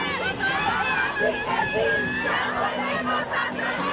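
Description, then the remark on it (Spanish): A large crowd of tens of thousands of women chants and shouts in unison at a March 8 street protest march demanding justice, voices overlapping in a dense, continuous roar with rhythmic rises. “Este 8 de marzo, decenas de miles de mujeres salieron a marchar para exigir justicia.”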